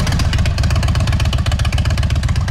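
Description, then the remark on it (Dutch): A motorcycle engine runs loud with its exhaust valve opened by a button on the handlebar, giving a deep, throaty rumble of rapid, steady pulses that holds without a break. “Nou, dan heb je natuurlijk het knopje op het stuur zitten. Nou, daar gaat hij hoor.”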